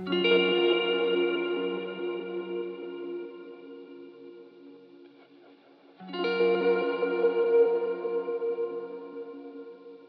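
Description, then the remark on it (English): Two mildly overdriven electric guitar chords from a very simple guitar part run through effects plugins, each strummed once and left to ring out with echoing delay and reverb trails; the first fades slowly before the second, equally loud, rings on. “At the moment, there's just some crunch and a bit of delay and reverb on here, but nothing crazy.”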